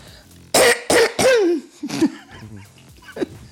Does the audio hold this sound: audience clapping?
no